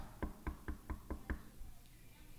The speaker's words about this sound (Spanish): He aquí estoy a la puerta y llamo. Si alguno oye mi voz y abre la puerta, entraré, cenaré con él y él conmigo.